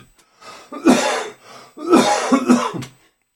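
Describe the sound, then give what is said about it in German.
A person coughs and clears their throat in two rough bursts, the second longer and harsher, with a brief pause between them and no talking. “Jetzt muss ich echt husten, sorry.”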